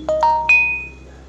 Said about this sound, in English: Hold on. Sorry, folks. Forgot my volume was on, on my phone. Uh, God, this is why I don't do these things sometimes. I just kind of wait. I usually have my phone on vibrate, so sorry.